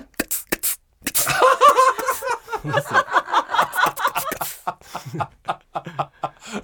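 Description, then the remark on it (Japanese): A voice mimics an air compressor with a sustained, buzzy mechanical drone that pulses and sputters for several seconds, followed by a few short clipped bursts, fairly loud. “コンプレッサーエアコンちょっと急にそんな技出さないでください”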